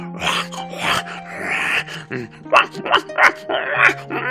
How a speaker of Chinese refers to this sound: 汪汪的大叫，他站在雪地里，冻得不停地发抖。